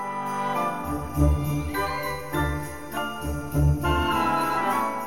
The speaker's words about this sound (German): Hauptthema ist eine ziemlich klare Anleihe an das, was eben bei Tschaikowskis Zuckerfee auch funktioniert. Ein zauberhaftes Glöckchen Klavier, unschuldig, zerbrechlich.